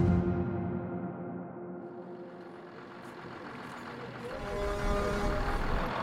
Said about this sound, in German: Herbst 2019 in Kellinghusen in Schleswig-Holstein. Das Tönnies-Werk steht still. Hupende Schweinetransporter stauen sich vor der Einfahrt.